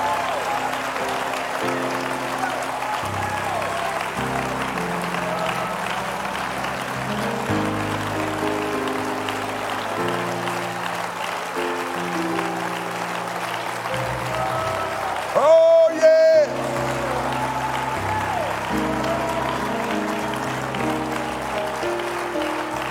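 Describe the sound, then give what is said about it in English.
An audience at a church service claps their hands to the Lord continuously in a dense, steady wash of applause for over twenty seconds, with low organ or keyboard chords moving stepwise underneath. “And I want you to clap your hands under the Lord like you mean it.”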